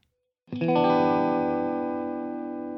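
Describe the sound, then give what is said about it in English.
A single strummed guitar chord in a totally clean, dry tone with no effects, distortion, reverb or delay, ringing out with rich sustained harmonics and fading slowly over a couple of seconds, with no talking. “I don't want to hear any delay. I just want to hear the naked unadorned tone of the guitar.”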